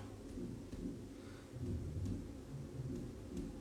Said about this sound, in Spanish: Puedes hacerlo así al ritmo de los latidos que se escuchan al fondo o a tu ritmo